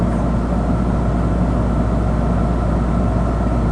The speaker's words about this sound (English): And now, now there the compressor. the compressor just kicked in. Okay, here's the compressor starting up. It's a little bit of a hum, but that's about all it is.